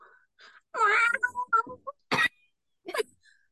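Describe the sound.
A person mimics a cat with a drawn-out, whiny meow and a few shorter mewing sounds, followed by two breathy, cough-like bursts. Fairly loud, with no speech.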